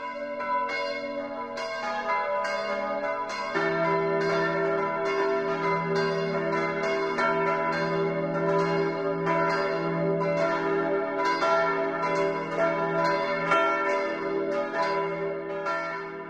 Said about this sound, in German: Das Mittagsläuten kommt heute aus Loppenhausen in Schwaben.